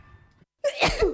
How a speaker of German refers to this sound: Gesundheit.